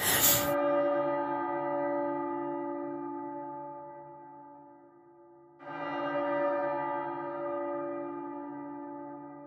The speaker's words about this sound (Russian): Интересно, что я был в Черновцах э, в это время, и в Черновцах э, звук воздушной тревоги начинается с удара колоколом, с таким набатом такой немножко церковный.